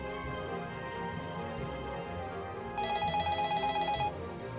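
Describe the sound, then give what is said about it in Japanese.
A telephone rings in one rapid, trilling burst lasting just over a second, clear and fairly loud above a steady musical background bed, opening a reenacted phone call; no one speaks. “電話の内容を再現するにあたり、相方に電話をかけてきた人物を演じてもらいます。”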